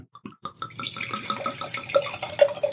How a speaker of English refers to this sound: and it's we're uh, going to have two Malbecs. We are going to have two, with a great exclamation point. That is very dark. you know what? I'm going to keep that one because it's a little more than I wanted to pour for you.